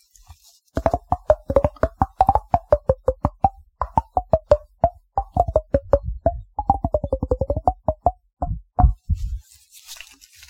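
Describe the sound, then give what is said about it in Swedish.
Rapid hollow knocks from fingers tapping on a head, played as a bouncy rhythm with shifting pitch like a little tune, fairly loud, with no talking over it. “jag vet inte om det går att spela på, typ så här på huvudet i det här.”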